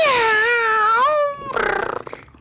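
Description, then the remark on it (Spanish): A cat gives one long, drawn-out meow that bends slightly in pitch, followed by a rougher, rapidly pulsing vocal sound; fairly loud, with no talking. “Cuando el gato quiere hablar solo dice, miau, miau.”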